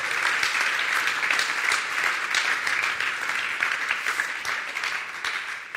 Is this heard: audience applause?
yes